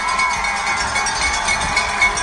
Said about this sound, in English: Right now, they're in overtime having a shootout. It's the Tulsa Oilers versus the Colorado Eagles. It's one to one. They got some time on the clock, but it's sudden death. And this crowd is going crazy because they want this team to win.